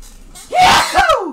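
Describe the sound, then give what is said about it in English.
A single loud sneeze bursts out after a brief quiet moment, sharp and breathy with a short voiced tail trailing off at the end. “I gotta sneeze.”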